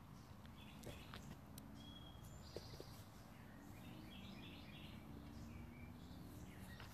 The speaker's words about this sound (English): I hear the birds. I hear nature. The birds are talking to each other.